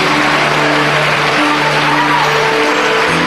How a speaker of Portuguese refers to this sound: Vamos aplaudir mais o Senhor Jesus por cada vida que está chegando aqui na frente. Olha quanta gente, vamos aplaudir mais, mais e mais.